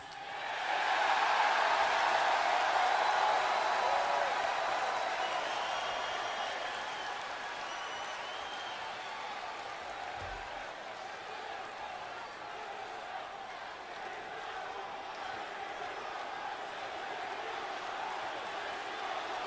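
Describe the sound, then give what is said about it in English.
A loud wrestling crowd roars and cheers in a big pop, a dense wash of voices and applause that swells early and stays strong, easing slightly but sustaining throughout with scattered shouts and whoops. “I think uh, I think it was a hit with the crowd. Like top five greatest pops of all time.”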